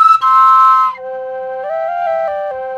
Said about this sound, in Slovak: A nevolám to dvojton vyslovene, lebo potom ešte by sme rozprávali o iných dvojtonoch, ako keď e, máš dvojačku píšťalku.